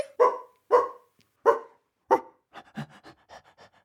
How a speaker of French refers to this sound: son petit lourdeau de chien, accourt et vient se frotter contre ses jambes.